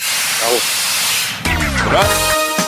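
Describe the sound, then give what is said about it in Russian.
A loud rush of hissing air as a train's emergency brake is pulled, followed by a shrill, wavering metallic squeal of brakes before it cuts off. “Стоп-кран.”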